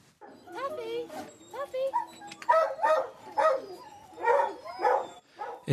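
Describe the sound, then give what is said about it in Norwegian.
A pack of hunting hounds barks and bays in overlapping, steady bursts, fairly loud, with several dogs giving tongue at once, during a fox hunt in the English countryside on Boxing Day. “Revejakt på den engelske landsbygda på andre juledag eller Boxing Day.”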